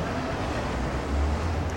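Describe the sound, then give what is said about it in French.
A steady wash of city street traffic from streets very near, around the place Sainte-Catherine, a continuous low rumble with no distinct vehicles standing out, swelling slightly near the end. No voices. “On est entouré de voitures. Bon, il y, a des rues tout près, ça j'entends bien.”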